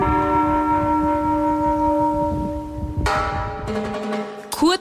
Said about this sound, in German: Die Kirche selber ist äh, ziemlich sehenswert, die ist sehr schön, äh, sie ist sehr spanisch und sie ist sehr modern. Die Glocken läuten nämlich nicht mehr selber, das Gebimmel kommt aus großen Lautsprechern.